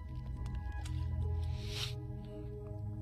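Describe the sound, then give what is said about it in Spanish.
Wet sipping and swallowing noises as a person drinks water, with a soft squish and a brief gulp near the middle, over a low steady hum and no talking. “dejen tomar agua.”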